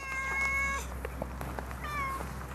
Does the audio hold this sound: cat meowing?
yes